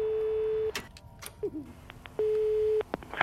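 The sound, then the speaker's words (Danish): A steady electronic telephone line tone on a wiretap recording sounds in two long stretches, broken up by sharp clicks and clunks of a line being picked up, with a faint hiss running underneath, as a tape recorder switches on automatically in a dark, quiet office. “klikker en af båndoptagerne automatisk til i det mørke og stille kontor. Der er gang i telefonerne igen.”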